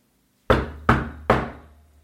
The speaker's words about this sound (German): Der Wolf aber ging geradewegs nach dem Haus der Großmutter und klopfte an die Türe.